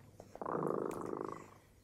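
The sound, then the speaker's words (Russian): A cat purrs in a soft, continuous rumbling burst lasting about a second, steady and moderately loud before fading away; no one speaks. “Кот запел свою песенку.”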